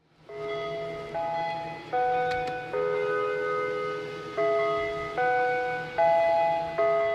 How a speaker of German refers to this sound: Zu jeder Mahlzeit erklingt irgendein Signal. In Shady Lane ist es der Westminster Gong. Dann kommen alle ins Küchengebäude, um gemeinsam zu essen.